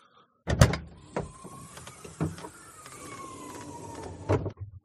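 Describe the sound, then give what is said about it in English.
A car trunk pops open with a sharp latch thunk, followed by a steady mechanical whir and a few clicks as the lid lifts, ending in another solid knock. “Mm, pop, pop that trunk for me, punk.”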